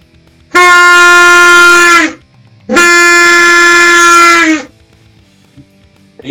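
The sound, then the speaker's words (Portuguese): Two loud, sustained blasts from an Indian reed horn, a horn from India with a reed so it is simply blown without an embouchure, each about one and a half seconds long with a short gap between, producing a buzzy, brassy, steady tone. “Esse aqui é um da Índia, um tipo de buzina também, só que ele tem alguma palheta aqui para já o som não precisa fazer embocadura, é só soprar.”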